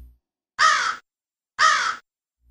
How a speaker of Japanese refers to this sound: そんなある日のことおじいさんが山から芝を背負って降りてきますと木の上でカラスが2羽何やら喋っています